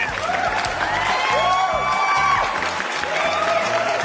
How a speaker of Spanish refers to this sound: ¡Aplausos, chingada madre!